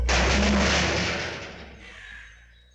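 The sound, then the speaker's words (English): A sudden loud crash bursts out, followed by a rattling, clattering tail that fades over a couple of seconds, as Julie's car knocks into the bins below a farm. No voices. “You're going to knock into the bins.”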